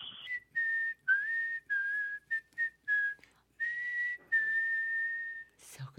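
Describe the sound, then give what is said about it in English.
A lone human whistle plays a slow, eerie tune of drawn-out notes with small pitch bends and brief gaps, clear, with no talking. “it's the creepiest whistle sound ever.”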